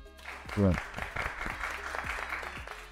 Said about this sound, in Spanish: Y un aplauso de todo el equipo de la Fe Cuto.